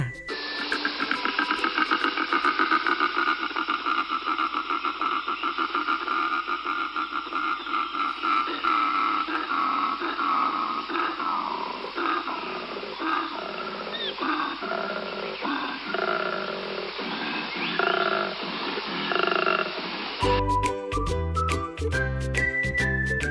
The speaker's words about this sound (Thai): และอีกประการหนึ่งที่บอกว่าโคอาล่าอยู่แถวนี้ก็คือเสียงร้องค่ะ ซึ่งโคอาล่าหนุ่มๆ นั้นมักจะร้องเรียกสาวๆ ในช่วงฤดูผสมพันธุ์ เสียงนี้จะดังมาก ดังไกลเกือบ 1 กิโลเมตรเลยล่ะค่ะ